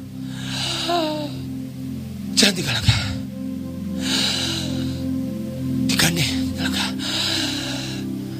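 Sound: imitated labored gasping breaths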